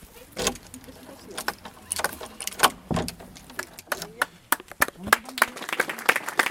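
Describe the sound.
A key rattles and turns in the old door lock of a historic synagogue in the Werra-Meißner district, bought by the Verein der Freunde jüdischen Lebens, giving a series of sharp metallic clicks and jangles, with a low murmur of voices from about 50 gathered people in the background.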